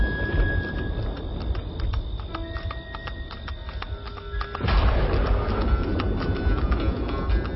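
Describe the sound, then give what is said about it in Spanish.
The horses of a cart trot with a steady clip-clop of hooves over a deep, continuous rumble of isolated thunder that swells louder partway through. No one speaks. “Se escuchan unos truenos aislados y el andar al trote de los caballos de un carro.”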